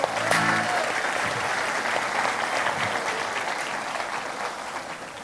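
A round of applause: many hands clapping in a dense, steady wash that starts strong and slowly tapers over about five seconds, with a brief murmur of voices at the start.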